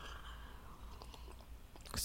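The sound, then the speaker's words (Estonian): Sipping and gulping of coffee: faint wet mouth clicks and slurps, then a louder swallow right at the end, with no talking. “aga kõigepealt võtame ühe lonksu kohvi.”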